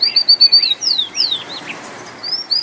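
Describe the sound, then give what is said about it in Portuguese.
A rufous-collared sparrow sings a bright series of clear whistled notes, several short repeated phrases followed by slurred downward sweeps, distinct with no voices present. “Ouve agora este outro canto.”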